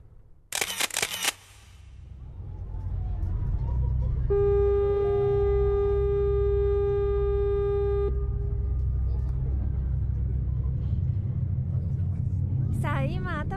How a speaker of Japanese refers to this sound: 港から初島に向けて船が出港いたしました